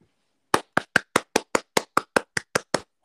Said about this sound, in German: Korrekt. Das ist das erste Mal, dass wir die Frage richtig beantwortet haben. Ja, das daher der Applaus.